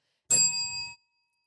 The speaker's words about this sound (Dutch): Eh, sorry dat ik je onderbreek. Het lijkt alsof dat belletje dat zorgt er echt voor dat we elkaar gewoon echt radicaal kunnen onderbreken.